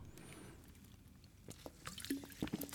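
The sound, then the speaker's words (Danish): Danish sparkling water being poured and sipped, with a soft fizzing hiss, scattered drips and a few short gulping sounds toward the end. Quiet overall, no talking. “Pas ja, på med at drikke vi... alt det dansk vand”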